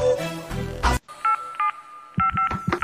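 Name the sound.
telephone keypad dialing tones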